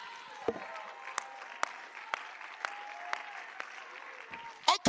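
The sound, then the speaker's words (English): A large church audience shouts and claps in a steady rhythm, about two claps per second, over a background of raised crowd voices and a sustained musical tone, ending in a louder burst. “Come on, some of you shout louder for Ole Miss than you're shouting right now.”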